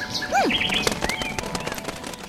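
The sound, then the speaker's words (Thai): A bird's wings flap in a quick, fluttering burst as it takes off, with a few short rising and falling chirps near the start. No one speaks. “แล้วนกก็บินหายไป”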